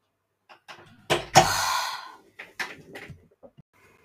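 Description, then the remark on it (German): A door shuts with a solid thud and a brief rattling decay, followed by a few softer knocks and clicks as things settle. No one speaks. “Mach die Türe zu.”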